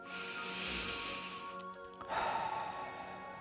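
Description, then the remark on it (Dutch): A long, steady breath drawn in through the nose during a guided breathing exercise, a soft airy hiss lasting a couple of seconds, fairly quiet, with no talking over it. “We gaan in door onze neus.”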